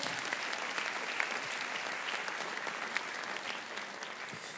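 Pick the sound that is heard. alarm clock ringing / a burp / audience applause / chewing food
audience applause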